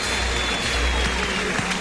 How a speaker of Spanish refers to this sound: Ovación para el toro que es arrastrado. La bronca es monumental.